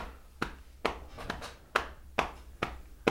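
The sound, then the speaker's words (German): A steady series of sharp hand claps, about seven in a row, clapping along on every beat at an even rhythm and moderate loudness, with a slight echo after each clap. No one speaks. “dass man immer auf jedem Takt mitklatschen kann”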